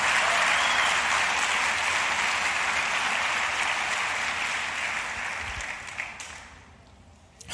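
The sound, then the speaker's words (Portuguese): A large audience applauds again at the speaker's request, clapping steadily in a dense, sustained burst that holds strong for several seconds, then gradually thins and fades toward the end, with no one speaking. “Aplauda mais uma vez, só para você dar uma exercitada aí.”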